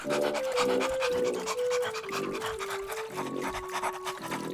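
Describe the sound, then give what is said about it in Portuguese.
A dog paddles across a river, panting hard and rhythmically while water sloshes and splashes continuously beneath it, with a faint descending whine-like tone running through. “Pulei no rio. Dei braçada, ou melhor, patada na água, no melhor estilo, nado cachorrinho.”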